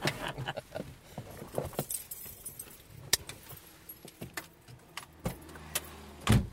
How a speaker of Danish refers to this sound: En ældre, elegant herre kører i sin lille bil hen over noget hullet asfalt, mens han nynner for noget for sig selv.